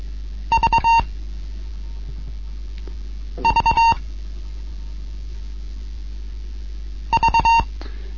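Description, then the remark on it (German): A Morse code letter V, three short beeps and one long beep, sounds three times in a steady clear tone with long pauses between, during a beginners' Morse code lesson, over a low background hum. “Dreimal kurz und einmal lang hinterher.”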